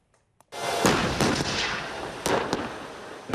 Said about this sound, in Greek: Άρματα μάχης πραγματοποιούν συντονισμένες καθολικές βολές στο πετροχώρι Ξάνθης.